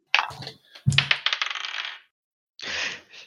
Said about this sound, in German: 14. Oh, ah, drei. Sieben. Würfelst du überhaupt mit 20?